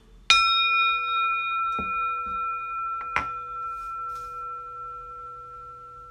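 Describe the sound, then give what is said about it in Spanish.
A meditation bell is struck to begin a guided meditation after a deep inhalation, its clear, steady tone ringing on and slowly fading; a second soft strike follows a few seconds later, with a few faint knocks in between. “Bien, hacemos una inhalación profunda y con el sonido de la campana iniciamos.”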